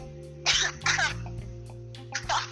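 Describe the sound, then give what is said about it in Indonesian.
A person coughs several times after eating ice, in short, harsh bursts, three main coughs close together with a smaller one between, over a low steady background hum. “sampai batuk-batuk begitu ya abis makan es”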